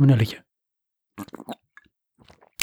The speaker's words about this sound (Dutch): Ach, heerlijk, man. Ik neem nog een slokje van mijn 0,0.